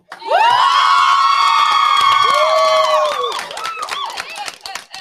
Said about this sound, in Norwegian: Jenter, det, kan vi få sånn skikkelig at dere bare gir alt, så det bare spraker i mikrofonene? Er vi klare for sånn der primal Siste skrik? Grand finale.